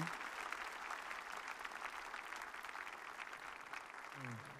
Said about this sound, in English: Shall we put our hands together and clap for the Demos Lord? un aplauso al Señor. Applaudissez pour le Christ.